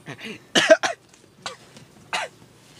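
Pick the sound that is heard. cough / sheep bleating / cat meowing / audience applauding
cough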